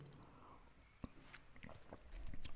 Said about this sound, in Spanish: Ay, un segundo, estoy tomando agua otra vez.